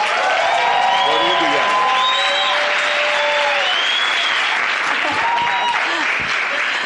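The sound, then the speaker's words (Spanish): Sustained audience applause in an auditorium, a dense steady wash of clapping at full loudness throughout, with a few cheers and whistles rising above it. “por favor ayúdemelos a recibir con un gran aplauso.”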